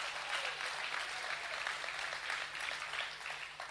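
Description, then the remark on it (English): A crowd claps steadily and loudly at a preacher's urging during a sermon, a dense wash of many hands overlapping into continuous applause with no break, and no voices standing out above it. “Come on, clap like you trust God for wealth.”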